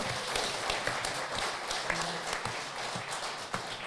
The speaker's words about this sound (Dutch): Ja, er mag er voor geklapt worden hoor.